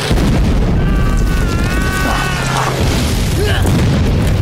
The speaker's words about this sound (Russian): Пролетающие самолеты сбрасывают бомбы, солдаты, не поспевшие укрыться в окопах Пролетающий истребитель пресекает окоп пулеметной точки. Дурак, давай в укрытие! На лежащих на дне окопа парней сыплются поднятые взрывами земли.